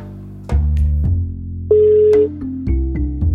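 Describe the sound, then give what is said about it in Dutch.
An outgoing phone call ringing on the line: a string of steady electronic tones that step between pitches every half second or so, fairly loud, with no one speaking. “Omdat hij niet kon komen vanwege alle drukte, bel ik hem op.”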